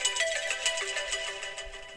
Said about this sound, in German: Und jetzt ruft er wieder an. Ja. Leute, ich mache jetzt meinen Klingelton an.